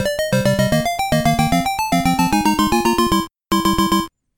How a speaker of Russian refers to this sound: Это вступительная мелодия к классической игре Battle City. Хотя ее так никто не называл, все говорили «танчики».